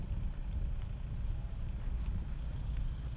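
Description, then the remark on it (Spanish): Faint, irregular metallic jingling of a horse's harness in a pedestrian zone on a sunny day with some clouds, light tinkles scattered over a steady low rumble of background noise, with no one speaking. “Escucharéis el tintineo de, Rico que está enfrente, un poco a la derecha.”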